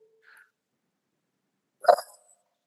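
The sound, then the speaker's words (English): A person mimics an animal howl with one brief, loud, voiced cry near the end. A faint little chirp comes before it, otherwise quiet. “… and his amazing animal sounds took the stage. Chirp. Howl!”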